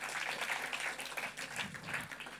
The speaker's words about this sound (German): ja, das finde ich klasse, dass man da mal klatscht.